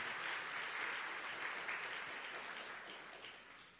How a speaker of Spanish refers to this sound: Dar un aplauso a los que nos están mirando en, cámara en este momento.